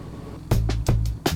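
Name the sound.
lever pulled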